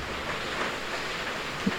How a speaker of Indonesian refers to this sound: Wah hujan cok anjir. Semoga ndak ndak berisik ya.